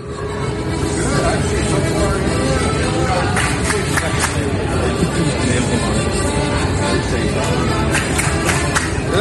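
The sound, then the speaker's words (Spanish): A busy street scene in Sydney outside a German beer hall restaurant, with people dancing at its door: dense, steady crowd chatter and bustle fill the air, with a summer hit song blended into the background noise throughout. “Puerta de un restaurante bailando una que fue la canción del verano, esta. Era una cervecería alemana y tenían un ambiente de, lo más eh, eh, veraniego,”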